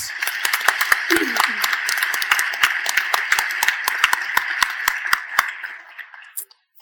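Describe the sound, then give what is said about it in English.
An audience applauds all the speakers of an event steadily, a dense wash of many hands clapping with sharper individual claps standing out, holding for several seconds before quickly dying away. “On that note, a huge round of applause for all of our speakers,”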